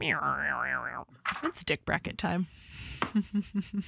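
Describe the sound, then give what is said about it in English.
A comedic, droopy boing sound effect with a wobbling, sagging pitch plays alone for about a second, then a man starts talking right after it. “Wait, the the dick, the flaccid dick noise is getting That's... out of hand.”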